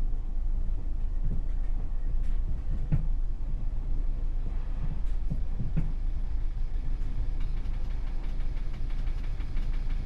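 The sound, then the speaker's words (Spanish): A metro train rumbles low and steady at a curved station platform, with a few sharp metallic clicks and clanks scattered through. No voices, just the continuous mechanical drone. “Dejar salir antes de entrar. Estación en curva. Meter el pie entre coche y andén”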